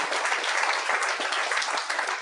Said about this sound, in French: j'aimerais ça qu'on lui donne une bonne main d'applaudissement